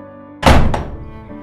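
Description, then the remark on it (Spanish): A door slams shut with a loud, heavy bang, followed quickly by a second rattling knock, then a short fading rumble over a low steady hum. No one speaks. “Dio media vuelta con gran irritación y abandonó la casa dando un portazo terrible.”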